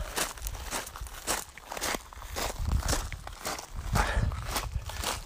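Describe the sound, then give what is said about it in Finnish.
Steady footsteps walking outdoors on a sunny day, a regular crunching tread of roughly two steps per second, fairly loud and continuous, with no voices over them. “No niin, lähdetään kävelemään. Mennään kävelee.”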